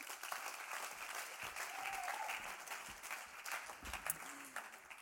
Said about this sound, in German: Geben wir ihr doch einen herzlichen Applaus.